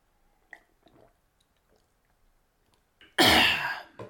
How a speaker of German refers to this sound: Trinkt Wasser.